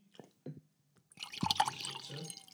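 A few soft clinks and taps, then a steady glug and splash of wine pouring into a glass for about a second and a half, with the liquid sound gently rising as it fills.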